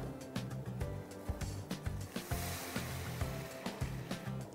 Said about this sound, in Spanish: Ya que está muy molido el huitlacoche con agua, lo agregamos a nuestro guiso.